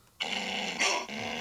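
Two dogs growl as a doorbell sound in a continuous raspy rumble, flaring into a sharper, louder snarl midway before settling back into steady growling. No one speaks.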